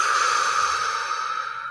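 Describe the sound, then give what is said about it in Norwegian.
A long, deep breath pushed out through the mouth as a breathing exercise, a steady airy whoosh lasting nearly two seconds and tapering slightly at the end, clear with no talking over it. “Og dypt ut”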